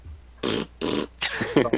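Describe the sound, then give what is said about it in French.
Someone blows a raspberry with their mouth to mimic a hammer-headed game creature farting each time it strikes, three buzzy sputtering bursts in quick succession, fairly loud, the last one breaking up into a wetter flutter. “Puis à chaque fois qu'il cogne, il lâche des pets.”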